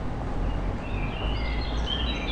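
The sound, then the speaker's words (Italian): Songbirds sing in thin, high whistling phrases, fairly faint, over a steady low rumble and background hiss. Nobody is talking. “Gli uccellini cantano più forte.”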